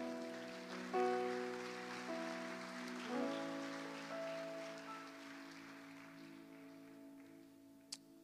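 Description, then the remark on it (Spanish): A church audience claps for the Lord during a service in a steady, dense, crackling wash of applause while sustained keyboard chords shift underneath, the clapping gradually thinning toward the end with no one speaking. “La iglesia le regala palmas al Señor.”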